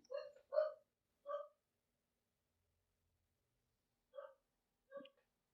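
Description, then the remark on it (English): A dog named Lucy barks in short, sharp yelps: three quick barks close together, a pause of a few seconds, then two more spaced apart. The barks are fairly quiet, and no one speaks. “And wouldn't you know, there's there's Lucy barking.”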